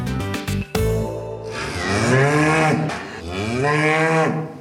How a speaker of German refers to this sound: Eine Kuh, unverkennbar. Ein schönes Tier und, so ist das nun mal, eine wichtige Fleischlieferantin für uns.